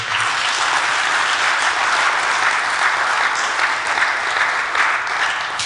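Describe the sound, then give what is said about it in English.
An audience claps hands to the Lord in steady, sustained applause, a dense wash of overlapping claps that stays loud and even for several seconds with no voices standing out. “Come and clap your hands to the Lord.”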